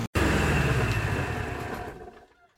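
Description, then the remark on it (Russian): A motorboat engine runs loud and rough, then sputters and dies away over about two seconds until it falls silent. No one speaks. “Движок заглох.”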